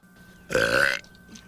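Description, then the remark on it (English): A single loud burp lasting about half a second, bursting out of a quiet background with a rough, voiced rumble. “Goodness! Excuse me.”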